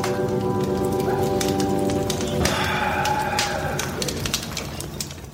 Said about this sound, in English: Why, oh, here they are now. Sparks, Nevada, and Croach the Tracker, and they're having themselves a regular cowboy campfire and waxing on all things under the stars.